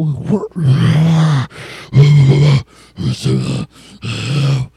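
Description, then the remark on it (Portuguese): A voice imitates heavy-metal growl vocals, several loud, guttural, rasping bursts of growls and grunts in a row with short pauses between them. “Aí eu terminei, eu olhei assim para ele, tirei o fone para escutar, porque eu, eu não consegui escutar com puta metal.”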